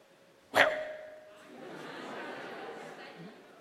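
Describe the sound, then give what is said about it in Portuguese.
A person gives a single short, loud imitation of a dog's bark, followed by a quieter stretch of murmuring voices. “Provavelmente se o Charlinho fosse latir, como faz para latir?”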